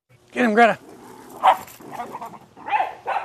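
Dogs bark and whine playfully as they play in a garden: a longer, strained yowl, then a sharp bark and a few softer yips spaced out over a few seconds.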